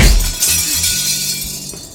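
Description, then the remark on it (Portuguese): Window glass shatters in a loud, bright crash as a woman kicks a man through a window during a fight. A continuous spray of tinkling, falling shards follows and lasts about two seconds. No voices are heard. “Ele olha pra briga em si, no momento em que a, que a Vivian, ela segura as duas mãos numa cadeira e com os dois pés, ela atira o Julio por uma janela.”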